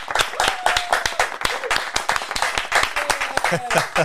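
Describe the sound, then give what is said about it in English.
Audience applause live at Paco's Place welcoming a guest: a dense, steady wash of many overlapping hand claps lasting the whole stretch, loud and continuous, with a few voices and whoops rising briefly over it. “Ladies and gentlemen, big round of applause live at Paco's Place”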